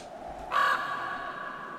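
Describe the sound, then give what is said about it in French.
A single loud, harsh crow caw sound effect, played to mark an awkward moment of silence, rings out briefly, then trails off into a faint, fading tail with no voices around it. “On fait un petit silence et Dave il nous met le corbeau du le corbeau, tu sais, quand tu as un grand moment de solitude, tu vois le corbeau de la solitude pour Laurent.”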